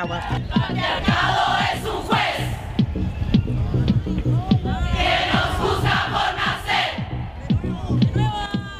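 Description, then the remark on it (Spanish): A large crowd of women in Qatar chants a political message together in a public space outdoors, voices rising and falling in rhythmic, forceful bursts, loud, with shouts layered over a steady dense roar of many voices. “Es bien difícil oír tantas voces de mujeres a la vez en Qatar, y mucho menos con un mensaje político, y mucho menos en un espacio público.”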